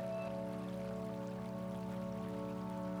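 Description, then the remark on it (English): Water from a narrow creek close by trickles and patters steadily over stones, the creek surrounded by large moss-covered rocks, layered with a sustained, humming musical drone. No one speaks. “You hear trickling water close by. You see a narrow creek its water is a shimmering emerald green.”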